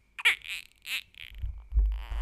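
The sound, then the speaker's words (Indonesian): A newborn baby, about 9 days old, makes a few short, high-pitched squeaks and coos at midnight, spaced out over a couple of seconds, followed by low rumbling handling noise. “By the way, uh, saya merekam podcast ini tengah malam ketika sedang babysit saya, uh, ketika sedang babysit bayi saya yang berumur sekitar 9 hari per hari ini.”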